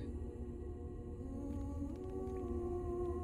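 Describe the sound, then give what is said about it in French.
Eerie, drawn-out tonal singing like a whale call, with sliding sustained tones rising and wavering over a deep continuous rumble, steady with no speech. “Des genres de sirènes peut-être C'est très beau.”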